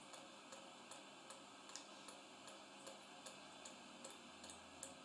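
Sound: ticking clock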